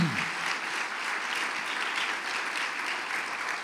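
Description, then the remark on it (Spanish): A crowd applauds the Lord steadily, a dense wash of many hands clapping that holds at an even, fairly loud level throughout, with no voices standing out. “Dale un fuerte, fuerte aplauso al Señor.”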